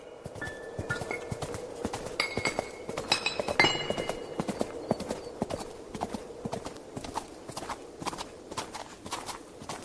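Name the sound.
horse hooves clip-clopping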